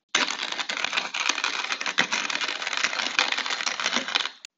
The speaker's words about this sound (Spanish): Realmente amo, adoro el sonidito que hace una moledora de café.